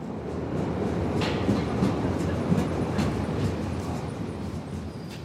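A subway train rumbles into a station, its steady low roar filling the space with rhythmic clattering of wheels over the rails and brief high metallic hisses.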